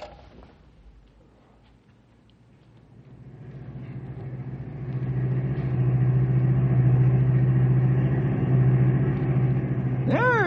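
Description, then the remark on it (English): A car engine hums steadily as the vehicle drives, the low rumble building louder and holding firm, with a rising whine near the end as it accelerates. “Okay, we're on our way. I'll stop by and pick you up in five minutes.”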